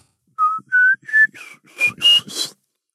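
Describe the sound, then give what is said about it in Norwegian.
A person whistles an imitation of a Eurasian pygmy owl's usual piping call: about seven short, clear notes in a steady rhythm, stepping up in pitch, fairly loud, turning breathier toward the end. “Eh, den vanlige lyden av spurvegla, det er en sånn pipelyd, sånn”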